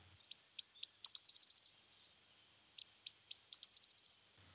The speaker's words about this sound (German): Das ist die sogenannte Blaumeise. Schau her mal. Das Gefieder, das Brustgewand ist gelb und der Rest ist bunt.